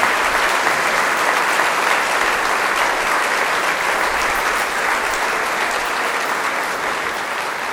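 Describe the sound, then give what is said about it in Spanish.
Loud, sustained applause from an audience at the close of a Mass, a dense wash of many hands clapping at once that holds steady for several seconds and tapers only slightly toward the end. “Felicidades, papá, le damos un fuerte aplauso y nos unimos a la alegría de ellos.”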